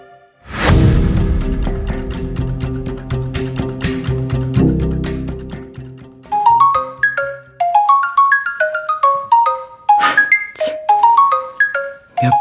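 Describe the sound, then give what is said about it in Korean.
A phone ringtone from an incoming call plays on its own while someone is putting on makeup, opening with a bright chiming swell before settling into a repeating melodic pattern of clear, bell-like tones that loops several times. “화장하는데 그녀에게서 또 전화가 왔다.”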